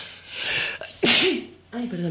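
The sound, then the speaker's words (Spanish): A single loud sneeze bursts out with a sharp breathy spray, followed by a brief voiced sound; a quiet breath comes before it, and a voice speaks briefly afterward. “Salud.”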